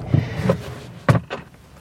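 A garage door being opened in Alicante, Spain, at 7:58 in the morning on 28 January 2019, at 10.5 degrees: a few short mechanical clunks and thumps, with a louder rattling knock near the end and no voices.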